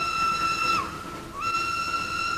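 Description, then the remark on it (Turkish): A loud steam train whistle sounds in two long, steady blasts separated by a brief dip, its layered tones ringing out over a low rumbling background as a train arrives. “Ah tren geliyor.”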